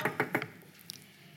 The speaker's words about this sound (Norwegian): Så sitter resten av gjengen, de ti, sitter der og snakker Liverpool, og så banker det på.